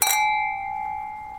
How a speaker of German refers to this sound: Wir stoßen einmal auf den Rosenhorti.